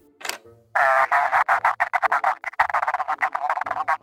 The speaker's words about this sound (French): je pense qu'il y a votre téléphone qui sonne. Oh, grand Dieu, oui, mon téléphone Vous avez dû reconnaître la sonnerie.